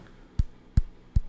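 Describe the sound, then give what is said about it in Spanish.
Three dry, dull thuds land at a steady, even pace, imitating the heavy heel strikes of someone walking barefoot on a second floor. They sound low, with quiet gaps between and no talking. “Como cuando andas descalzo en un segundo piso y alcanzas a escuchar el talonazo.”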